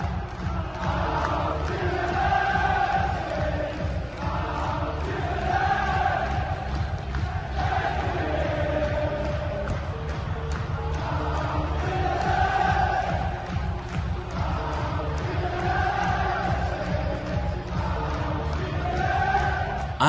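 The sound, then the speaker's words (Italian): Rangers football fans roar and chant in celebration after the victory that sent the Glasgow club to the Europa League final against Eintracht Frankfurt, a loud, dense crowd sound with rhythmic swells of sung chanting rising and falling throughout. “i tifosi dei Rangers impazziscono così dopo la vittoria sull'Ipsia che regala alla squadra di Glasgow la sorprendente finale di Europa League contro l'Eintracht Francoforte.”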